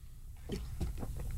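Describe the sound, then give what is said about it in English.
Someone sipping coffee: a few soft, wet mouth and swallowing sounds in a quiet stretch, ending in a brief, sharper slurp. No one speaks. “I had to have a sip of coffee because I'm I'm a little parched here.”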